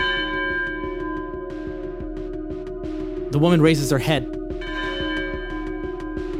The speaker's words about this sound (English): And just as you ask that question, you start hearing outside on the street a lone bell starts chiming.